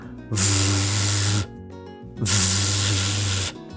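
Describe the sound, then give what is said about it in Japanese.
A voice sustains a buzzing, voiced English "v" fricative twice, each held for about a second with a short pause between, fairly loud; made with the same lip and teeth position as "f" but using the vocal cords, so the lips vibrate; the hiss of breath mixed with a low vocal hum. “なので、口の形とか歯の位置これはあの F と全く一緒ですで違うのは声帯を使うんですね V 音っていうのが要は喉のこの声帯を使うので唇がブルブル震えてちょっと痒くなるような感じになりますでその痒い感じが出ていると V 音は正しく出てます”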